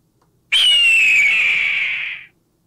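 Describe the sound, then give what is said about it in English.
A single eagle cry: one loud, piercing screech that starts abruptly and glides slowly downward for nearly two seconds before cutting off, heard alone with no talking. “You hear it? You heard the eagle?”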